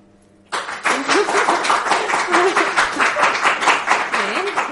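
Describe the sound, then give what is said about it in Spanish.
An audience bursts into sustained applause as a vote, whoever makes the most noise winning; dense clapping starts suddenly and stays loud and steady, with a few voices calling out underneath. “De un lado para otro y cada vez aplaudís y el que más...”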